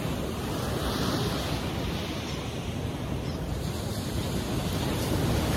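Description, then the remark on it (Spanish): Ocean waves break on the shore in a steady, continuous wash of surf, full, with a faint breezy hiss over the roar and no voices. “Ahora imagina que estás parado aquí enfrente del mar.”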